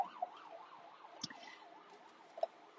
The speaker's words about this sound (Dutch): En, um, oei, ik hoor een sirene aankomen.